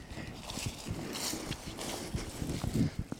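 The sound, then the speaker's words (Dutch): Footsteps crunch along an outdoor path at a steady walking pace as someone walks away from a culvert further into a nature reserve, moderately loud, with a faint open-air background and no talking. “We lopen weg van de duiker en gaan verder het natuurgebied in.”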